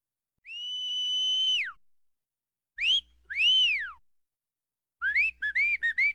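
A clear, high whistle blown by a father on a reed stalk: one long held note that slides down at the end, then two rising-and-falling swoops, and finally a quick run of short, bouncy chirping notes. No talking.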